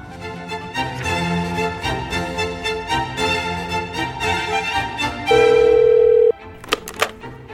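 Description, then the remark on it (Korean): On the radio show Gayo Gwangjang's Gagwang Community Center segment, a bright musical jingle plays, then a single steady electronic telephone ring tone sounds for about a second, followed by a couple of sharp clicks as the line picks up for a listener's call. “네, 가광주민센터 이기광입니다. 1795님, 안녕하세요. 어, 무슨 일로 전화 주셨어요?”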